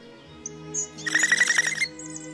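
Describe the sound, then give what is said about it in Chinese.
A small bird with brownish-yellow wings, startled from its nest-building in a locust bush as someone walks past, gives a sudden, sharp chirping call, a quick burst of rapid repeated notes lasting under a second, with a few faint high peeps before and after. “当他走过的时候，那只小鸟吓得鸣叫一声，拍打着褐黄色的翅膀。”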